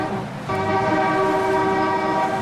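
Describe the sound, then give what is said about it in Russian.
A loud car horn, sounded by a driver, holds as one steady, sustained blast. It starts after a brief moment of background noise and continues to the end without a break. “Если вы сейчас едете, слушайте, сигнальте три раза.”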